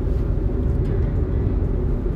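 Steady low rumble of a car interior, engine drone and road noise filling the low end continuously at a constant, fairly loud level with no voices.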